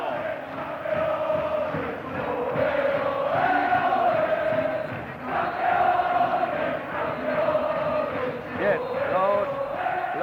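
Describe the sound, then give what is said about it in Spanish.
A dense, continuous roar of a large basketball arena crowd during a game, as Ramón Rivas goes to the free-throw line with about 44 seconds left, loud and sustained, with overlapping shouts and voices swelling and dipping briefly around the middle before surging again. “Vamos a escuchar en eco al de Coa el público.”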